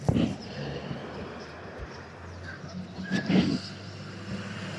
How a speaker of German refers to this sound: Und es fahren Autos lang hier, ne? lauter Autos.